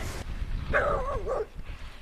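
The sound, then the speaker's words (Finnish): A single dog, watching from the top of a rocky outcrop, gives a drawn-out, wavering bark-like yowl lasting under a second over low outdoor rumble, with no one talking. “Tuolla on koira.”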